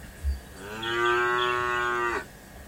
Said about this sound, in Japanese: こう、牛で、牛の鳴き声に出迎えるってのやってるんですけど